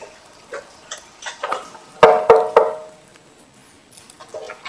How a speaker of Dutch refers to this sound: Dan wordt er aangeklopt.